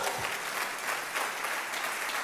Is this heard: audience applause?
yes